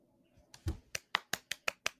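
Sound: hands clapping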